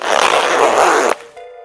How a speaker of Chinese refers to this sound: 说完，阿虎拉出了存尸柜，拉开了拉链